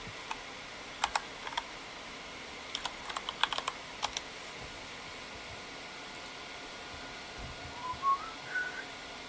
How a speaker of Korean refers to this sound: 내 키보드 소리가 좋다고요? 아니야 여러분 나 이게 키보드가 이상해서 그래